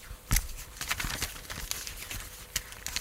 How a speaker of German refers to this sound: Kannst du das hören? Das das knisternde Papier des Drehbuchs.